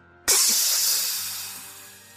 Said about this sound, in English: You're gonna hear a click as all six of these line up with each other, and you're you're gonna hear a hiss, like um like something's been vacuum sealed and then just